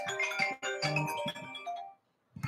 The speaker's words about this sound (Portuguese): Isso é hora de ligar para as pessoas? Agora a gente faz ao vivo assim mesmo, o telefone toca.